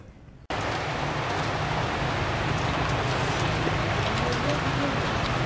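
heavy rain pouring

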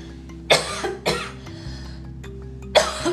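coughing

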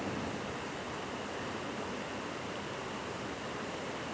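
waterfall rushing water

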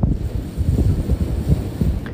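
wind blowing

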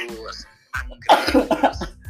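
cough

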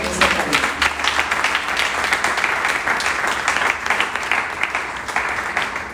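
audience applause

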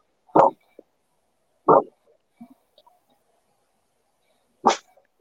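dog barking

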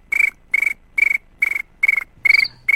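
crickets chirping

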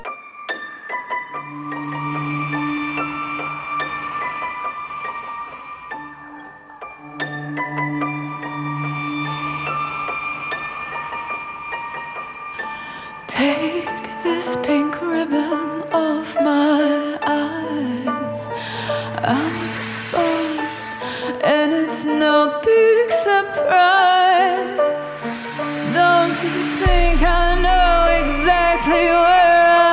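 music

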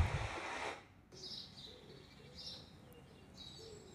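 birds chirping

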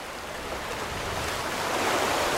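sea waves sound effect

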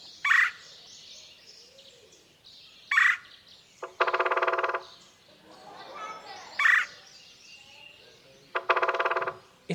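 red-bellied woodpecker call

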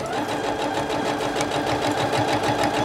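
sewing machine stitching

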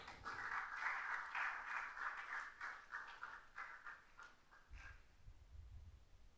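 audience clapping hands

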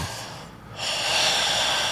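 heavy panting breathing

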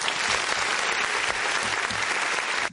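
round of applause

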